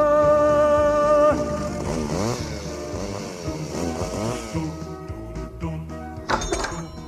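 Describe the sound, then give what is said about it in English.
A chainsaw engine runs loud and steady, its buzzing pitch revving up and down in repeated wavering surges, then breaking into choppy sputters and knocks near the end. No one speaks. “This chainsaw you saw me last week, it don't work.”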